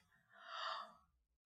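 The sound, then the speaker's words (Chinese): A single breathy yawn from the character Sleepy as he stirs flour for a birthday cake swells up and fades away over about a second, airy and drawn out, fairly soft, with no speech around it. “瞌睡虫一边搅拌面粉，一边打着哈欠。”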